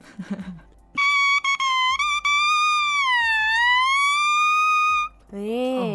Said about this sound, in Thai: เพราะจังเลยค่ะเอ้ยอย่าแหมแค่ลิ้นเองนะคะยังไม่ได้ต่อเข้ากับโอโบเลย